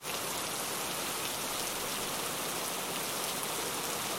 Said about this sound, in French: c'est que déjà il pleut. Ouais, il pleut depuis ce matin. Bon, pas vraiment depuis ce matin, mais il pleut comme ça.